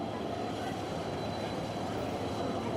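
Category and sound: vehicle, tram passing by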